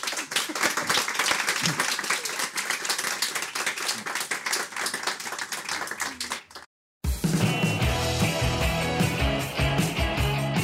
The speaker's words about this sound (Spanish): Gracias, Un aplauso. Gracias.